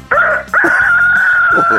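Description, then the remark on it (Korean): A person imitates a rooster's crow on a voice-impression contest segment of Park Myung-soo's Radio Show: a short rising yelp, then a long, loud, sustained wavering call drawn out in one breath, with no talking over it. “닭소리 들어보겠습니다.”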